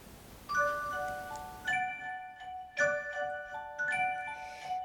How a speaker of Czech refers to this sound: Zavírám oříšek pohádkový, slyšte už zvon zvoní.